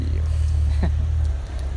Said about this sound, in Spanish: No por nada mi vecino está metiendo su carro, güey.